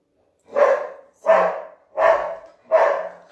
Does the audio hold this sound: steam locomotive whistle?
no